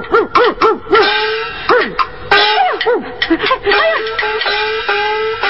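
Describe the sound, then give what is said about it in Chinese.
A person mimics a dog to bark at a man catching fish, with a rapid run of loud, yelping barks and whining arcs, voiced in short bursts over about five seconds with no speech. “我来做只狗，吼他一下。”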